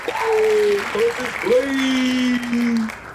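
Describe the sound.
Steady applause from an audience lasting about three seconds, a dense wash of clapping with voices whooping and cheering over it.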